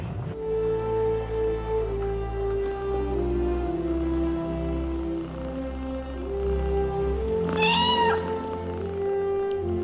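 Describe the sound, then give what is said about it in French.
A female cat, Félicette, the world's first cat astronaut, sent 157 km above the Earth's surface, meows once, loud, near the end, its cry rising and falling over a steady, droning low background; no one speaks. “Cette petite chatte est allée à 157 km au-dessus de la surface terrestre.”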